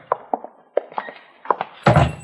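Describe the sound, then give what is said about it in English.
A shop door is opened: a series of sharp thunks and clicks from the latch and handle, followed by a louder, fuller scraping swing. No one speaks. “I'll open the door.”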